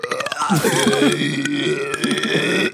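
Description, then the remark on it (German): A single long, loud burp rumbles for nearly three seconds, its pitch wavering and bending with a strange, almost musical quality. “da hatte so, der Röps hatte noch so, so so äh, ein Geigen-Dings unterlegt.”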